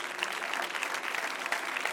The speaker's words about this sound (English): Now put your hands together and clap them unto the Lord.